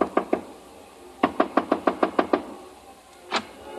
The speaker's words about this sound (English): On my way to the elevator, I got a sudden impulse. I stopped in front of room 300 and knocked.